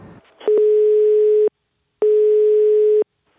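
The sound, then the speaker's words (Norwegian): A telephone ringing tone sounds twice, each steady electronic beep lasting about a second with a short pause between, loud, with no voices; an NRK call to the bunad seller Norske Bunader in Oslo. “Vi ringer til norske bunader, som også driver eh, annonsekampanje akkurat eh, nå.”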